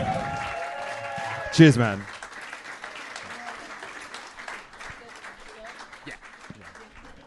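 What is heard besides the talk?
audience applause and clapping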